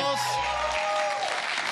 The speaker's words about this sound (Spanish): El aplauso radiofónico.